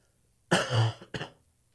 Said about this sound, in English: Sorry, there's a uh, still getting over this cold, so every once in a while I'm going to be hopping off the microphone to cough a little bit.